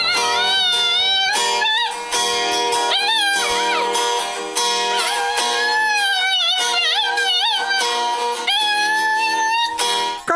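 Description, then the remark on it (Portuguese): A small dog howls as if singing, in long, wavering, sing-song phrases, its pitch sliding up and down almost continuously for about ten seconds, loud and with no one talking. “Precisa ver o cachorro da Dani cantando.”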